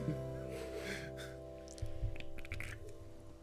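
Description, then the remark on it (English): A sip of a drink taken right into the microphone, with a soft airy slurp followed by a few wet clicks and small swallowing sounds, quiet and intimate over a faint steady hum. “You gotta you gotta sip into the mic.”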